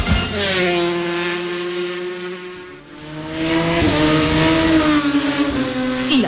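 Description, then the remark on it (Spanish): Motorcycle engines rev hard, a loud, high-pitched whine that rises, dips briefly around the middle, then climbs again and holds steady. No one speaks. “motos.”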